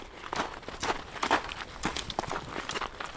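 A woman walks at a brisk pace with a pair of walking poles in her hands: a quick, steady run of crunchy footstep taps mixed with sharper clicks, about a dozen in a few seconds, fairly soft and with no voices.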